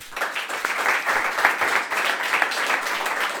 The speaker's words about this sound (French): Encore un grand merci. On applaudit tous nos invités et votre projet.